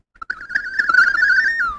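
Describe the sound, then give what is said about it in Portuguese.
An instrument plays a warbling, high-pitched electronic tone imitating a bird's call, sliding and trilling steadily for under two seconds before dipping down at the end. No one speaks. “Embora dá pra fazer efeito, por exemplo, lá, ah, vou fazer um pássaro, um passarina.”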